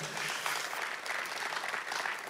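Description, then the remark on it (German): An audience claps steadily and fairly loudly, a dense wash of many hands sustained throughout with no talking over it. “So lasst uns Applaus geben, komm on.”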